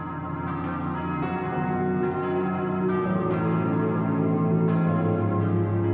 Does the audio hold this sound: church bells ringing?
yes